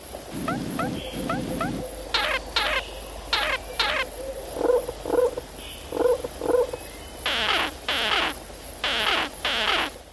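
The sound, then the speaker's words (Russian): A string of underwater calls of social snake-necked turtles, recorded by Australian scientists: low grunting bursts, then sharp clicks and knocks in short repeated clusters, with hissy, buzzing pulses near the end, all over a steady watery hum with no talking. “И это звуки общительных, подводных черепах.”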